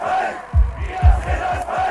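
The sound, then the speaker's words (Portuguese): A large crowd gathered at the gates of the Stasi headquarters in East Germany chants "We are the people" in unison, loud rhythmic shouted syllables repeating about twice per second over a continuous roar of many voices. “Menos de um mês depois, uma multidão reúne-se em frente aos portões da sede da Stasi, a polícia política da Alemanha de Leste.”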